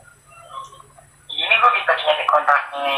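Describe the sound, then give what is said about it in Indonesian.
A phone ringtone from a call being placed starts up after a second of faint low hum, then plays loud with bright, warbling tones that continue to the end. “ya udah ini telepon lagi lah”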